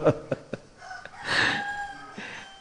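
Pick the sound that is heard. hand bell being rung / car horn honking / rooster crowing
rooster crowing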